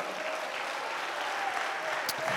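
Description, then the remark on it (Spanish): An audience applauding Christ steadily, a dense wash of many hands clapping at an even level throughout, with no voices standing out. “Dale un aplauso a Cristo por eso, amado hermano.”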